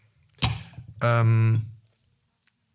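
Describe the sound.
A quick, sharp plastic crackle as a yogurt cup is handled, followed by a man's hesitant filler sound and a faint tick near the end.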